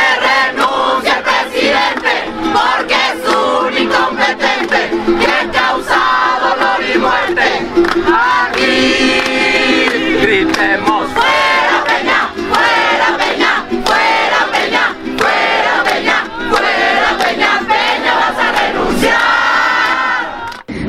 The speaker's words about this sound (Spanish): Vamos a gritar bien fuerte.